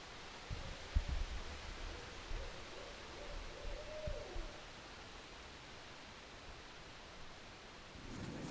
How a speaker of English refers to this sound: I just finished traveling all around the northeast part of the U.S and I'm back in Minnesota preparing to go on a plane trip to Los Angeles. And it's nice being out here, hearing these owls and wind, and it finally feels like fall weather.